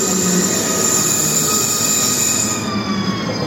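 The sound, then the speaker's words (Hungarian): A double-decker train rumbles steadily with a thin, high metallic wheel squeal running throughout. It is loud and heard from the train's upper deck, where people have just boarded as it sets off. No voices. “Szóval közben fölkászálódtunk a emeletes vonatnak a felső szakaszába.”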